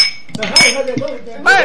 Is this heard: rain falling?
no